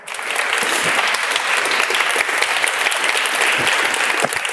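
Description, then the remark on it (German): Sustained audience applause, a dense steady patter of many hands clapping together, filling the whole stretch without any talking over it. “Und da, finde ich, kann man noch mal kurz einen kleinen Applaus spendieren.”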